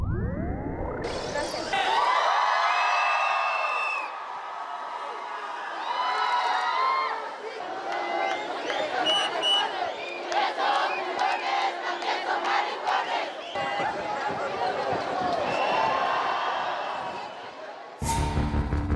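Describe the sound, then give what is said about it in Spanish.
A large crowd of the LGBTI community shouts and chants loudly and continuously at the 1969 Stonewall riots in New York, with overlapping voices and raised cries rising and falling for the whole stretch, like an angry protest mob. “Así se escuchó por primera vez la voz de la comunidad LGBTI en Nueva York en 1969.”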